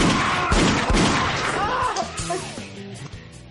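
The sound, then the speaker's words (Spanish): Several sharp, loud gunshots crack in quick succession over the first second, then give way to a wavering tonal backdrop of voices or music as the shooting stops; from an Asturian-language action short film by Pablo Quiroga. “Pues tiros, puñales, también en asturiano, obra de Pablo Quiroga.”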